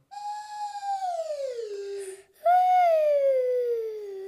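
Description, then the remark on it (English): Two long downward-gliding whistle tones from a slide whistle, each sliding smoothly from high to lower pitch, loud, separated by a brief pause. “This game is called Singing Slide, and all you need to do is make a slidey sound with your slidey voice, like I'm going to make with my slidey whistle.”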